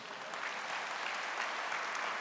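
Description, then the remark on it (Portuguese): Steady, dense applause from an audience clapping for Jesus, a continuous wash of many hands clapping at an even loudness throughout, with no voices standing out. “Quem está nessa fé aí, levanta sua mão e aplauda ele bem forte.”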